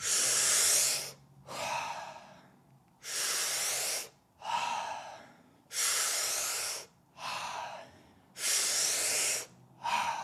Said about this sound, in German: Und jetzt atmen wir vollkommen aus, sodass der letzte Hauch Luft aus der Lunge rausgedrückt wird. Und jetzt atmen wir durch den Mund ein, erst in den Bauch, dann hoch in die Brust.